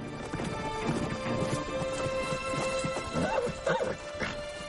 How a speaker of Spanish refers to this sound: Ralph y otros jinetes galopan hacia el río.